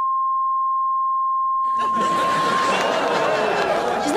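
A steady, piercing censor bleep over swearing on the Jerry Springer show holds for about two and a half seconds. Partway through, a noisy crowd of voices and laughter swells up beneath it and carries on after it cuts off.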